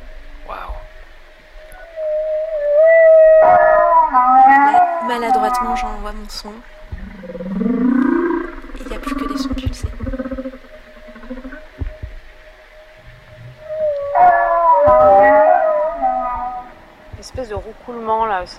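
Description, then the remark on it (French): Humpback whale pulsed calls come in two long, loud bursts of buzzy, harmonic moans and groans with a rough, rapidly pulsing texture. They are separated by quieter low rumbles over a steady background hum. “Ah, ça, c'est du temps pulsé, ça.”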